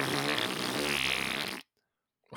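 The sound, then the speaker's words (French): A loud mouth fart: a wet, buzzing blown raspberry sustained for about a second and a half, cutting off abruptly into silence before another sound begins at the very end. “Oh, tu t'es fort d'un pet de bouche, là.”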